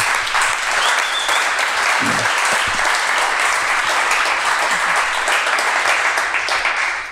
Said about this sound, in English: And as this is a live podcast, we can give her a warm round of applause in the beginning.